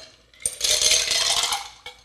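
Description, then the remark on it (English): A just-shaken peach schnapps cocktail is poured from a shaker into a glass: a steady rushing pour lasting about a second, with ice clinking against metal and a final light clink as it stops. “So then we go from there and we add it to our glass.”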